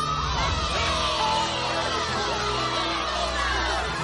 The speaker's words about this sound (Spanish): Todos vitorean a Carlitos, le cogen en brazos y lo suben en alto.